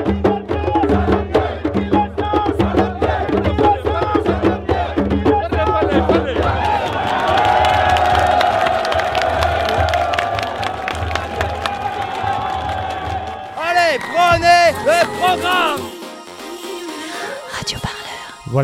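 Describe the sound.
A street demonstration crowd at the solidarity march for undocumented migrants on 17 September in Paris cheers and chants loudly, with a steady rhythmic drumbeat underneath early on, then a sustained collective roar and overlapping shouting voices toward the end.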